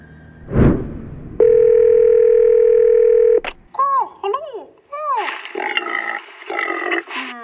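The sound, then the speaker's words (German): A telephone call to the Museum für Naturkunde Berlin: a short whoosh, then a steady, buzzing dial tone holds for about two seconds before a click. Rising and falling electronic chirps and a warbling, pulsing ring tone follow. No one speaks. “könnten wir doch mit Bonnie vom Museum für Naturkunde Berlin telefonieren.”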